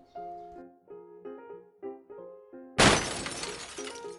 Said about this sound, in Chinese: 大卫把花瓶打碎了。